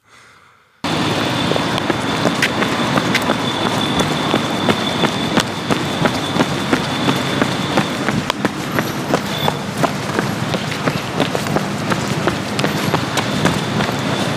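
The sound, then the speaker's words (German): Quick, hurried footsteps on a sidewalk of square paving stones as someone hurries to catch a bus, a rapid steady rhythm of hard taps continuing throughout over a faint outdoor background hum. “auf dem Gehweg. Steine sind viereckig. Und äh, da musste ich schnell zur, ähm, man hört es, wenn man, ich hatte es eilig, weil äh, der Bus war da.”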